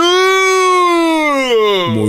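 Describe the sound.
A voice imitates a cow mooing with one long, drawn-out tone that slides lower toward the end, fairly loud, with no other sounds around it.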